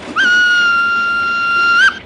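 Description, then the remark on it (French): A single loud, sustained locomotive whistle blast lasting nearly two seconds, holding a steady shrill pitch with slight bends as it starts and stops, heard alone without any talking. “Non, ça, c'est pas le frein. Ça. Ah non, ça, ça c'est sifflé.”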